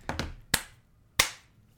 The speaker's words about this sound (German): Du musst ja. auch klatschen. Ja, ich weiß, dass Klatschen für die Zuhörer dann vermutlich nicht so gut ist, aber.